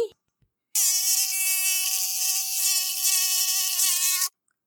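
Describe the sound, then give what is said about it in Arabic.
A mosquito whines in a loud, steady, high-pitched drone that holds for several seconds before cutting off abruptly, with no other sounds around it. “لكن هذا ليس كل شيء لدي صوت قوي اغني”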